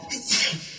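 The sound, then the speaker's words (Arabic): A single quick sneeze, a short breathy burst that fades within a moment, with no talking. “رحمك الله”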